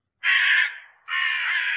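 crows cawing sound effect

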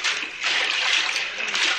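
splashing

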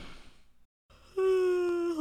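person yawning

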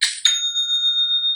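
shopify sale notification chime

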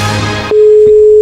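telephone busy tone

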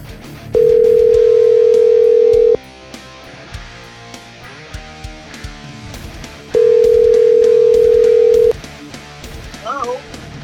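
telephone dial tone

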